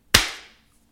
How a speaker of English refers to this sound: We're going to do a sync clap just so that we know where all the tapes need to line up. So if you'll indulge us with a three, two, one clap, uh, that would be awesome. Okay, ready. Three, two, one.